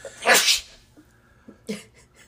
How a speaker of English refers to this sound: Are we good? No. Bless you again.